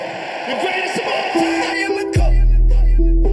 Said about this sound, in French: Merci à notre producteur Max Sabolin pour cette petite prod, le, cri de la chèvre, le cri du goat de John Jones à la fin.